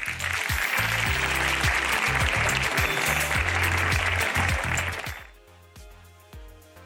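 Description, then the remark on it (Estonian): A crowd at an investment festival applauds to thank speaker Karl, dense, steady clapping for about five seconds, then the applause fades quickly into quiet with a few scattered claps and faint background murmur. “aga suur aitäh Karlile, teeme suure aplausi.”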